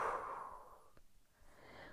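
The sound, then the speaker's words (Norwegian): A single slow, soft exhale during a guided breathing exercise before sleep: airy, breathy noise that starts fuller and gradually thins out over about two seconds, with no talking. “Og pust ut.”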